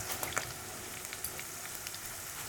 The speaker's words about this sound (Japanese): うん、でこうジュージュージュージュー言ってきたらここで弱火にします、はい、これでじっくり香りをどんどん出していく感じですね